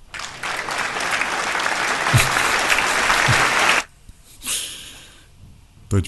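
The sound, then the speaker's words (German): A burst of canned applause fills the first four seconds, dense and steady clapping with crowd noise, then cuts off abruptly, followed by a brief breathy sound and a short exclamation. “So klingt das dann heute Abend. Yay! Ja. Aus der Dose.”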